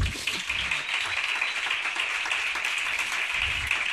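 Steady crowd applause fills the whole stretch, a dense, even wash of many hands clapping at moderate loudness with no talking over it.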